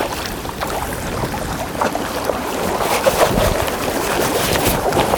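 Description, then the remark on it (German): Steady wash of water and wind noise with repeated splashy bursts as a kayak paddle dips into choppy waves on the Warnow river at Rostock, about a kilometer wide there, with a tailwind; a fairly loud, continuous churning without any talking. “Schau doch mal, wie ich hier paddel.”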